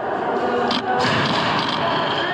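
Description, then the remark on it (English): A sign being smashed inside the US Capitol crypt, heard as heavy thuds and bangs amid a loud, dense crowd din, with voices shouting throughout. “caught smashing a sign.”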